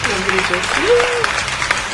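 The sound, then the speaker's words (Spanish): A crowd applauds the day's special guest, a dense, steady patter of many hands clapping for the full two seconds, with a brief voice calling out over the middle of it. “aparte tenemos un nuevo, nuevo montaje, un nuevo aplauso, otro aplauso”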